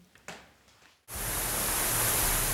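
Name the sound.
roaring waterfall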